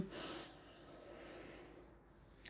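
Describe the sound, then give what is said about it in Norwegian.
A long, steady breath drawn in through the nose, soft, with a brief sharper airy rush at the start and another at the very end, taken during a guided breathing meditation after a count of three. No one speaks. “På tre så puster vi inn. Én, to, tre. Vi puster inn.”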